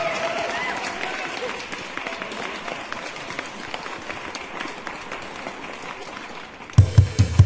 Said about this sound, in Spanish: ¡Aplausos! ¡Público!